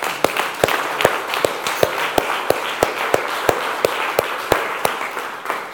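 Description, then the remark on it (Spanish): A church audience applauds God during a sermon: dense, continuous clapping from many hands, punctuated by a sharp, steady rhythmic clap beat about three times a second, fairly loud and with no talking. “Denle otro aplauso a Dios, por favor.”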